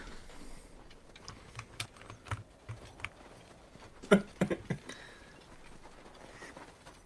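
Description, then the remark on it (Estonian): Clattering computer keyboard typing right next to the microphone as someone searches on Google, with irregular bursts of sharp key clicks, a few louder strikes near the middle, against a low background hum. “tal on klaviatuur vist selle otse selle mikrofoni juures”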